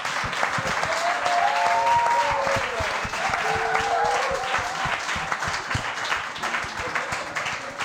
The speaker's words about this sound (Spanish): Así que ahora yo también vuelvo a pedir un fuerte aplauso para ….